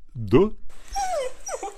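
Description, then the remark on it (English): A Basenji dog gives a sharp yelp, followed by a couple of high, sliding whimpers and whines, all within about two seconds. “Frederica still can yelp or growl. Then let them yelp and growl.”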